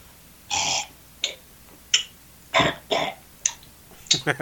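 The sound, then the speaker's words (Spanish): A voice imitates an old man's grunts and throat clearing: a drawn-out rasp followed by a string of short, gruff harrumphs and huffs, fairly loud, with brief pauses between them. “este capítulo lo voy a cerrar solo haciendo ruidos de, de anciano”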